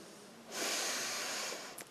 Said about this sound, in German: macht die Augen zu und schnauft tief ein.